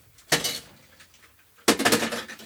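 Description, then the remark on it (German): Ice cubes being emptied from a silicone tray: two separate bursts of hard, rattling clatter as cubes tumble out, with a quieter pause between them and no voices. “Das heißt, ich leere jetzt eine von den Silikon, ganz normalen Silikon-Eiswürfelbehältern und da wird der jetzt eingefroren.”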